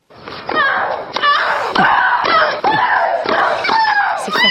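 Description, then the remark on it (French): Tennis rally sound effects: sharp racket strikes about once a second, each answered by a loud, high, drawn-out grunting shriek from the players, continuing for several exchanges. “Ça vous plaît, ça, les, les bah, bruitages euh, tennistiques.”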